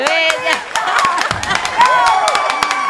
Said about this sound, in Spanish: Eso merece un aplauso.